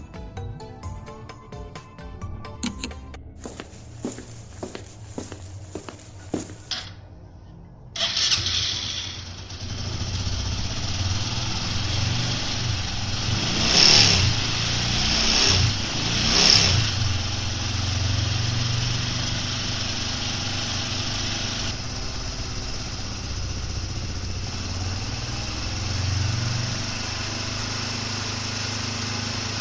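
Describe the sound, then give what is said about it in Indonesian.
A retro motorcycle engine starts up with a few sputtering revs, then settles into a steady running drone as it rides off, loud throughout with no talking. “Egi mematikan tipnya dan bergegas pergi ke rumah dokter mistik misterio dengan mengendarai motor retronya.”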